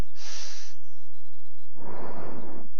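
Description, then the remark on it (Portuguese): Two slow, deep breaths blown close to a microphone as a breathing exercise: a hissy exhale, a pause, then a longer, fuller rush of air with a breathy roar and no talking. “Estou respirando no, no microfone, desculpa.”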